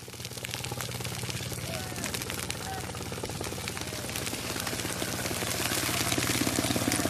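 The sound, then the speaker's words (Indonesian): A large forest fire burns steadily, with dense crackling and popping spread across the whole clip over a low, continuous roar, loud throughout. “Aduh ngeri deh kalau udah denger bunyi api-api kayak gini”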